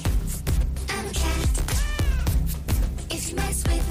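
Bouncy, loud music from a video game character emote, with a steady thumping beat and a cat's meow rising and falling through the middle, with other meow-like sounds woven into the tune, as the character flies through the air like a cat.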